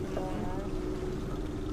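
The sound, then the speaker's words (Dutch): A boat on a sunny day trip chugs steadily across the water, its engine a low continuous drone with a faint harmonic hum riding on top, and a murmur of voices underneath. “hey, hoe is het nou een dagje uit te zijn op een boot? Uh, lekker lekker op het water.”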